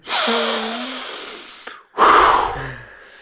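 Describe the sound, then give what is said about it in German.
A voice imitates a neighbour's heavy, huffing breaths: two loud, breathy puffs with a slightly voiced, wheezy tone, separated by a brief pause, with no talking. “Die schnauft auch immer so.”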